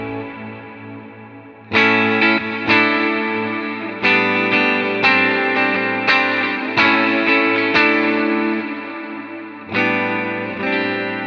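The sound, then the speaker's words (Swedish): Electric guitar chords strummed about ten times at an unhurried pace through an effect preset called Exciter with light modulation and pre-delay, each ringing out with a shimmering, modulated wash and a soft delayed tail, played alone with no voices. “Lite modulation där. Pre-delay, precis.”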